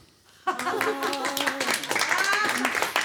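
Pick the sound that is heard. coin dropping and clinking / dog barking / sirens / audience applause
audience applause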